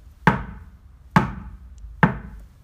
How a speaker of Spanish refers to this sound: tres golpes en la puerta. Eh, las nenas dijeron, qué raro, en pleno invierno, ¿quién vendrá a casa?